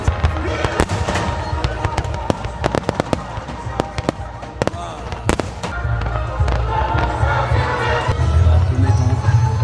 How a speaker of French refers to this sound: on attend toujours les feux d'artifice.